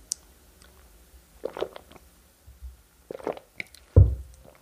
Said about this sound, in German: Ich nehme dabei einen Schluck Wasser.